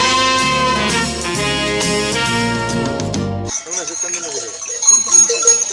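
Goats bleat in wavering, overlapping calls while bells clang and tinkle steadily among them, a busy herd sound with no talking.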